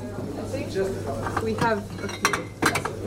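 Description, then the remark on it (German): Clinking glass and rattling kitchenware as someone rummages through supplies to pick out a Romanian beer in Bucharest, with bright chinks near the end and a low steady hum underneath. “inspiziert die Vorräte, sucht mir ein rumänisches Bier heraus.”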